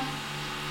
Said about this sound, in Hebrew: וואי, אם אתם שומעים פה איזה קדיחות ברקע